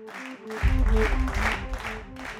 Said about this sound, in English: In the cave, we do claps and, and snaps and just things all together in, in sync. One to sort of sync up, and two to, to move into uh, a, a, new kind of space.